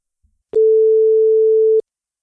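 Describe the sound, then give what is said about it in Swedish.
A single steady electronic ringback tone sounds on a phone line while calling a listener, for a little over a second, clear and loud, with soft clicks at its start and end and no talking. “Ja, vi ska ringa upp våran eh, kära lyssnare.”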